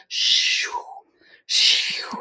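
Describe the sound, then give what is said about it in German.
A voice imitates the page-flipping sound of an online flip-through magazine, two breathy, hissing swooshes about a second apart, each sliding down in pitch at the end, fairly loud. “Das heißt, die, die Leserinnen kriegen tatsächlich ein blätterbares Magazin, das kann man online quasi dann ähm, anklicken, dann öffnet sich das und dann blättert es. Das mhm. macht dann auch immer so einen richtig coolen Sound.”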